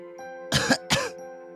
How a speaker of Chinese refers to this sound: 我咳嗽了两下，血沫伴随着血水从口中流出。